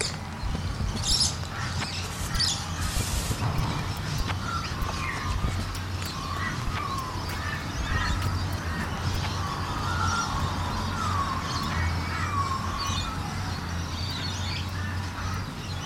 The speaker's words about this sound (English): Here's what I thought the dawn chorus might sound like.